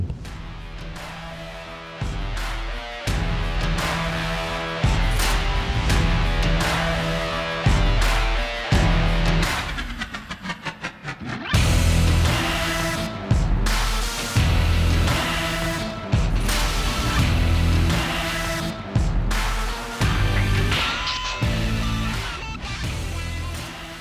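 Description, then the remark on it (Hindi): An upbeat intro song plays loud and full, with a punchy steady beat, heavy bass and dense layered instruments, briefly thinning into a short breakdown midway before the groove returns; no one talks. “but आप मेरा introduction song ज़रूर सुन सकते हैं हे वी गो”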